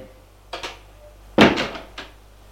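door closing

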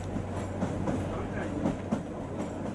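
train rolling on rails

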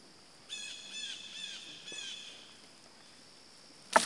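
blue jay calling

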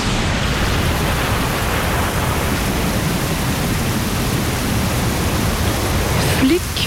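rain falling

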